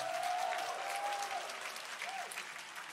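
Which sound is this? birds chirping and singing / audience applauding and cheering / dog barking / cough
audience applauding and cheering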